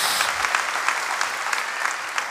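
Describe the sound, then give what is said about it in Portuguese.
Steady, dense applause from a large group given in praise of the Lord, a continuous wash of many hands clapping at once with no voices standing out. “Pode uma salva de palmas ao Senhor.”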